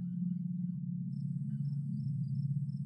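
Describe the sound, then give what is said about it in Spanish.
Night crickets in a forest chirp in thin, high, pulsing trills that start about a second in, over a steady, loud low droning hum that runs throughout. No one speaks. “Es de noche y estás en un bosque.”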